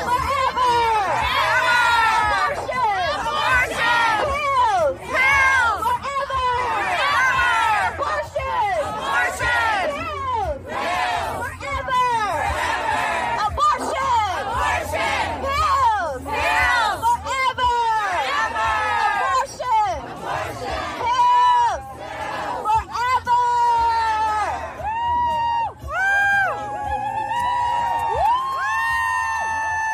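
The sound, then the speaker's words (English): A large protest crowd outside the Supreme Court chants "abortion pills forever" loudly and continuously, many voices rising and falling together in a rhythmic, shouted refrain, with cheering mixed in and a steady low rumble underneath. “So, listening to the audio, you hear they're saying abortion pills forever.”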